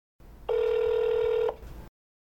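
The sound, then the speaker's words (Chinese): A single steady ringback tone plays on an outgoing phone call placed by an Indonesian new resident to an obstetrics and gynecology clinic often visited by migrant workers in Taiwan, one long even beep lasting about a second over faint line hiss, with no voices. “那为了了解移工堕胎的情况，我们特别请了一位印尼新住民帮我们打电话到移工常去的妇产科诊所询问。”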